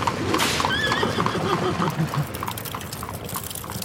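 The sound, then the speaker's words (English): A horse whinnies loudly near the start while a horse-drawn carriage filled with gold bars sets off, hooves clip-clopping steadily over a busy, rumbling background that eases slightly as it moves on. “On the seventh day of my existence, Lifsar Towers, the father of Praxus, took off in a carriage filled with gold bars to seek the counsel of the three wisest.”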